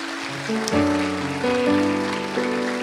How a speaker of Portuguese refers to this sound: Pode aplaudir o Senhor.